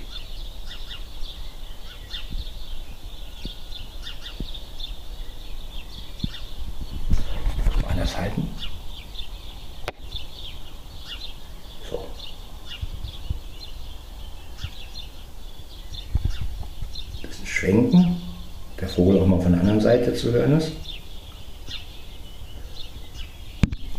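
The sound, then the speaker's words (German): Birds sing outdoors in a steady chorus of high chirps and trills, recorded with a device held out of a window, with brief rustling and a short stretch of speech breaking in near the end. “Vielleicht könnt ihr mir ja ähm, schreiben, was für ein Vogel das war.”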